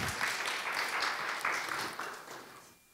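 A crowd claps steadily for a few seconds, a dense wash of overlapping hand claps at moderate volume that gradually thins and fades out toward the end.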